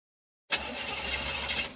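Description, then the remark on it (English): After a brief silence, a car engine abruptly kicks in with a harsh, rough, rattling roar that holds steady and loud, sounding like a struggling, failing motor in a car breakdown. “Is it your engine, your transmission, or worse?”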